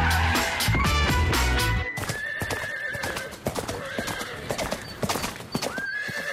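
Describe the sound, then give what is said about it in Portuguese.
Horse hooves clip-clop in a steady rhythm at a riding arena where horses are trained and riding is taught, with a horse neighing loudly near the start over a busy, layered background. “É assim que se chama o sítio onde se ensinam os cavalos, onde se fazem exercícios e se aprende a arte de ser cavaleiro.”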